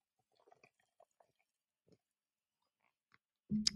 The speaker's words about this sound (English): I've got a, I've got a, a large bottle of water here, and I'm drinking as much as I can to keep myself hydrated. Um, sorry, I've I've got to have a sip now.